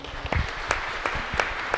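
A church audience applauds to welcome visitors from other parishes, a steady wash of many hands clapping with sharper individual claps popping out every few fractions of a second, at moderate loudness with no voices over it.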